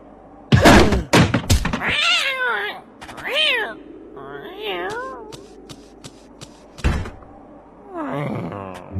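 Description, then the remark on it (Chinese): A few heavy thumps land as a cat that was given no food is beaten, followed by the cat's loud, wavering yowls and meows rising and falling in pitch, several drawn-out cries in a row, then another thud and a final pained wail. “不给东西吃还打猫，真是太坏了！”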